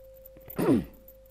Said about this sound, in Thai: ชวนให้เริ่มจาก B1 นะคะ B1 นี่จะเป็นลักษณะของการหายใจที่สั้นและแรงเนาะ